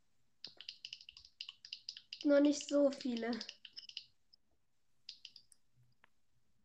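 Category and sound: machine, rapid computer mouse clicking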